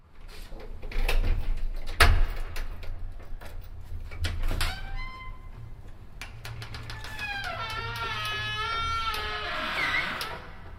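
Heavy doors of St. Petrus church on the outskirts of Wuppertal creak and squeal open, a couple of dull thuds followed by long, wavering high-pitched squeaks from the hinges that rise and fall for several seconds.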